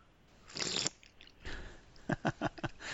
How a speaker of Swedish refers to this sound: Gode surplande också. Ja, jag tänker lyssnarna måste ju höra att, att det är på riktigt.